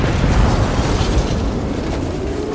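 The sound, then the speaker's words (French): Heavy, rumbling explosions of bombs dropped by several hundred American planes roll together into a continuous deafening roar, loud, with dense low-end booms and no voices, on a sunny Friday morning, 26 May 1944. “Mais vers 10h15, on a commencé à entendre les premiers boums. D'abord assez éloigné, mais très vite, le bruit est devenu assourdissant.”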